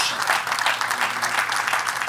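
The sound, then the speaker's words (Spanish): A crowd claps steadily in sustained, dense applause given to God, the many hands blending into a continuous bright patter without pause. “Den un aplauso a nuestro gran Dios.”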